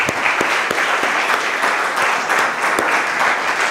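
An audience applauds steadily, a dense wash of many hands clapping at a fairly loud, even level with a few sharper individual claps standing out, and no voices heard.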